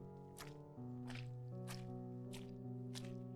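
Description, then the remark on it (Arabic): Five slow, evenly paced footsteps with a wet, squelching quality, like someone walking in water-soaked shoes, land one after another over a steady low musical drone, distinct. “صوت الخطوات رجع تاني”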